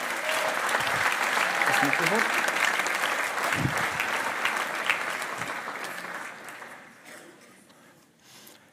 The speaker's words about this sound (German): Er kommt gerne mal nach vorne. Also fetten Applaus für die Freiwilligen